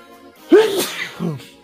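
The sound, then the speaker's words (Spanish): A single loud sneeze bursts out sharply, followed a moment later by a softer breathy exhale, with no talking around it. “Salud.”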